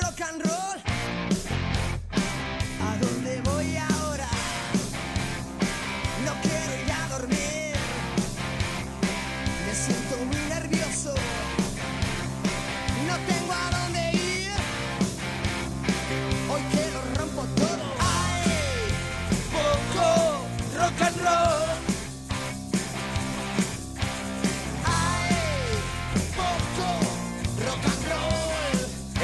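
A loud, driving rock song plays throughout, with a full band pounding steadily beneath raw, shouted vocals that stay upfront and energetic from start to finish.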